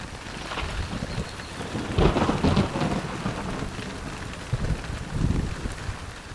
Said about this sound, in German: Inzwischen prasselt heftiger Regen auf den Kinderspielplatz nieder.